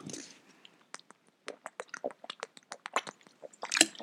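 Quiet mouth sounds of someone drinking water: a string of small wet sips, clicks and gulping swallows in an uneven rhythm, with no talking.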